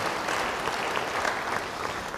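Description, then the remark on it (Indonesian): An audience applauds together, a dense, steady wash of clapping hands that holds at an even level for a couple of seconds, with no one speaking over it. “Yang setuju beri tepuk tangan bagi dia.”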